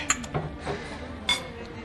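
Drinking glasses clink together in a toast to loved ones, two bright, ringing taps a little over a second apart, clear over a faint background hum.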